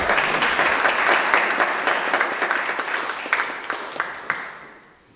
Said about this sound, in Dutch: Dames en heren, een groot applaus graag voor Eduard Dekker.